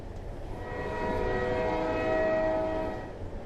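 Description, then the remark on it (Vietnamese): A train horn sounds one long, steady blast of about two seconds as the Miki Station train prepares to depart, its layered tones held over a continuous low rumbling of the train. No one speaks. “Miki Station xin thông báo, đoàn tàu Miki chuẩn bị khởi hành.”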